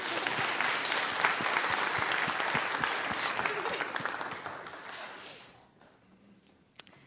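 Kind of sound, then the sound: crowd, applause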